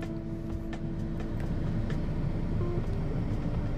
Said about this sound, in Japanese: あの、ちょっとね、今日は2本撮りなので、えっと、連続って形でちょっと恐縮なんですが、車の中からね、あの、お送りする感じになっております。